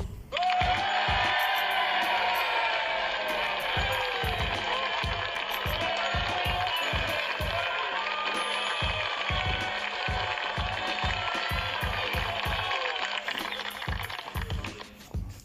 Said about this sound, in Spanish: Aplausos. Aplausos, por favor, aplausos.